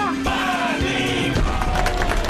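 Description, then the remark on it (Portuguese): Looped recorded crowd applause and cheering from a virtual audience, played on a Jovem Pan and Panflix studio show, a dense wash of clapping with some whooping voices, steady and fairly loud throughout the short stretch. “Esta plateia virtual aqui, plateia que é um loop de pessoas aplaudindo, vão e voltam mas dá um gás aqui pra gente.”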